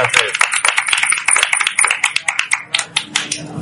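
A crowd at the Radio Viajera stand at Fitur breaks into loud applause to bid farewell to a guest, a dense burst of overlapping hand claps that thins out toward the end into fewer, separate claps.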